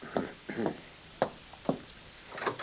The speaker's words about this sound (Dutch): Ja, dat is de deur van de badkamer.